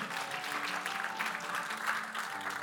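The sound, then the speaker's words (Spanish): An audience claps steadily in sustained applause to the Lord, a dense wash of many hands, with no one speaking over it. “Dele ese fuerte aplauso al Señor porque Él es bueno.”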